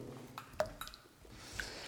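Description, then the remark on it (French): Water drips from stalactites in a cave, three or four small separate plinks with a brief ringing tone, fairly faint against a quiet, hollow background. “Tu vois, toutes les, tu lèves la tête, toutes les stalactites, là, il y a une goutte d'eau qui tombe.”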